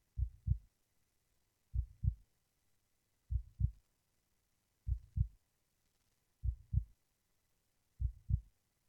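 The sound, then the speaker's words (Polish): A steady, deep heartbeat thumps in paired lub-dub pulses, six beats evenly spaced about every 1.5 seconds, low and muffled over near silence: a video game's health indicator, heard when the sword is drawn, showing how much health the player has and beating faster the more damage is taken. “No i to serce, które tam słychać, jak wyciągniemy miecz, oczywiście oznacza to, ile mamy zdrowia.”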